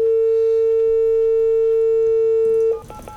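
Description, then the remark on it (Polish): A phone line ringing tone on a call to the Żak school: one steady, mid-pitched electronic beep held for almost three seconds, then abruptly cut off by a burst of clicks and line noise. “I dzwonię do szkoły.”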